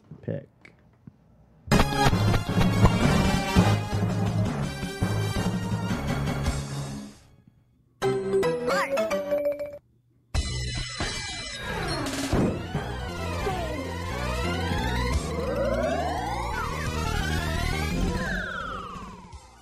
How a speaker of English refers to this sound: Ah, the sights and sounds of the Simpsons arcade game. So, this was released in 1991 by Konami.